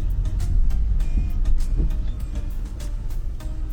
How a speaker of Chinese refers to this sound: 所以这这样的环境在新加坡就算是比较幽静，嗯，没人人没这么多，而且还有这个公共巴士。 哈，这么窄的路还有那个公共汽车。